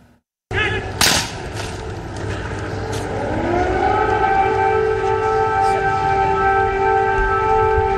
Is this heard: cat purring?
no